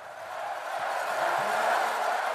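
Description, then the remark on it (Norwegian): A large outdoor Olympic crowd cheers with cowbells ringing along the biathlon course at the Lillehammer Winter Olympics, in sunshine at minus 20 degrees, a dense, steady roar that holds at an even level for a couple of seconds without any clear individual voices. “OL-jubel med vadmelsbukse i 20 minus og kubjeller i solskinn i skiskytterløypene under OL på Lillehammer.”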